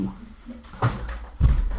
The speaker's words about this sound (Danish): Det kan være, at øh, jeg lige øh, lukker døren, fordi jeg har lyst til at larme.